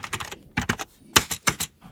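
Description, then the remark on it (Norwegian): Keys pressed on a mechanical computer keyboard with soft-touch switches, a quick run of crisp clicks in irregular bursts, fairly loud, with short pauses between clusters and no talking. “Tastaturet må vi jo begynne med. Ja. skal vi trykke litt på.”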